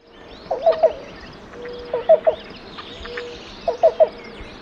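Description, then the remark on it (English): A black-billed cuckoo's coo call: three evenly spaced groups of three quick, hollow coo notes, clear, over a steady outdoor background hum, as rain starts to fall. “The black-billed uh, makes like a nice croak call, a coo call,”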